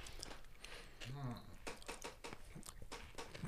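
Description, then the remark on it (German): Wet smacking and chewing sounds of someone eating repeat in an irregular rhythm, with a brief low hum from a voice partway through. “Ich entschuldige mich bei allen Leuten, die wie ich Lecker. unter Misophonie leiden, die uns jetzt beim Schmatzen zuhören müssen, aber sorry.”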